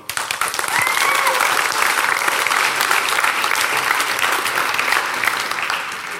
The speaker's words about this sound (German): Danke, Technik. Großen Applaus an die Technik, Hammer.